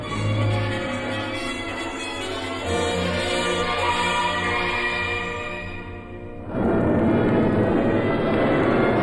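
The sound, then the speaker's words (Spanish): A jet airplane's sustained, tonal roar grows closer, swelling sharply louder and harsher near the end as it nears overhead, coming in to land at an airport. No one speaks. “Un ruido inconfundible que vibraba en el aire cada vez más próximo le obligó a levantar la cabeza. El jet centelleando bajo el sol, parecía una flecha de plata.”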